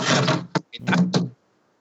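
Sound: drawer being opened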